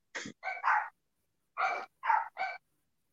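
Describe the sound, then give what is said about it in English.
Puppies barking in short, high yaps: a quick burst of three, a brief pause, then three more. The barks are clear, with no talking. “the puppies are enraged i don't know what has happened”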